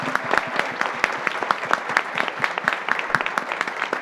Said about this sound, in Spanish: Para nuestros invitados a este panel les pido un fuerte aplauso por su participación.